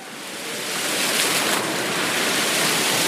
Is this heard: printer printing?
no